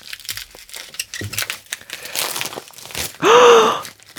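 A package heavily wrapped in green bubble wrap is unwrapped with irregular crinkling and rustling of plastic for about three seconds, then a loud, sudden gasp from a person cuts in near the end.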